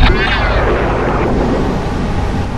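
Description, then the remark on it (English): A loud zapping sound effect: a buzzy, falling electric tone at the start melts into a dense, crackling rumble that holds steady for about two and a half seconds. “And with that sapping sound ends this episode of the Chameleons Incorporated audio podcast.”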